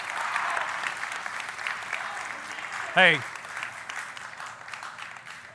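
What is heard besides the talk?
audience clapping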